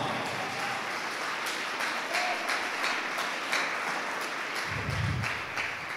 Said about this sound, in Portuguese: eu vou te curar, eu vou te abençoar, e se você recebe isso, aplauda Jesus bem alto